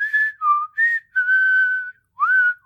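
A truck driver in a film whistles the movie's soundtrack tune while walking slowly in the dark, a series of clear sustained notes rising and falling with short breaths between phrases, one long held tone in the middle, with no talking.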